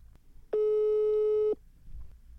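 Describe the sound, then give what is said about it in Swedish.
A single steady electronic phone ringing tone sounds for about a second, loud and clear against a quiet background, then cuts off abruptly, as a person phones their brother. No one speaks. “Nej men nu, jag, jag ringer min bror, jag testar.”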